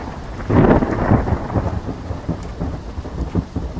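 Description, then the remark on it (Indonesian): Heavy rain pours down steadily during a mountain climb, heard by someone sheltering under a folded tarp, while a loud rumble of thunder rolls through near the start, then the downpour continues as a dense, noisy patter. “saya juga mulai tutup diri saya dengan di tengah-tengah dari terpal itu saya lipat sekali dan saya lipat lagi di atas saya dan hujan deras datang.”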